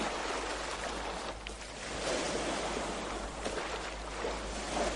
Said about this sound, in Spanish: Aquí en la isla, el mar. ¿Y cuánto mar? Se sale de sí mismo a cada rato. Dice que sí, que no, que no, que no, que no. Dice que sí en azul, en espuma. En galope dice que no, que no. No puede estarse quieto.